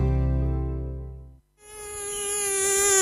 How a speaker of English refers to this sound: mosquito plague is currently raging across the 1FM listening area. To make things worse, the mozzies can carry diseases like Ross River fever, Barmah forest virus, and the potentially deadly Murray Valley and Japanese encephalitis.